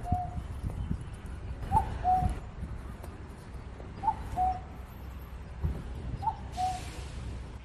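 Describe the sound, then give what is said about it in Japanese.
A cuckoo-like bird call, recorded around 8:30 in the morning near the entrance of a broadcasting station, repeats four times, each a mellow two-note phrase at a mid pitch, spaced roughly two seconds apart over a steady low rumble. “はい、このブック、ブックとも、まあ、聞こえてるんですけど、 あの、この鳥の鳴き声聞きますと、早く種まいて田植えしてっていうふうに中国人の農民たちの耳にそういうふうに聞こえるらしいんですね。”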